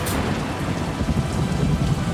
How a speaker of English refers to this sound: Above, the sky is completely darkened by a powerful lightning storm, lightning striking the tower that Tyrannus has made.